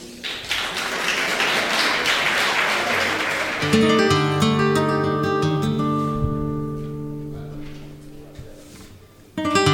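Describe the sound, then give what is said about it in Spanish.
An audience applauds loudly for several seconds, a dense crackle of clapping, which fades as a guitar begins playing sustained plucked notes and chords to open a granaína. “Un fortísimo aplauso.”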